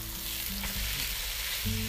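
Batter for kumicchan-yaki sizzles on a hot griddle in a steady, crackling hiss that runs unbroken for the whole two seconds, with a faint low hum underneath and no voices.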